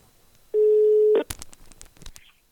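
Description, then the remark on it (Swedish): A single steady telephone ringing tone of an outgoing call sounds loudly for under a second, then cuts off into clicks and rustling noise as the line seems to connect. “Ja, då testar jag ringa.”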